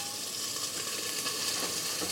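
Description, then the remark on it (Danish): Chicken simmering in a pot gives off a steady sizzle with fine crackling and bubbling that holds at an even level throughout, with no voices. “Så her har vi en pande derovre. Der står kylling og simrer i en gryde.”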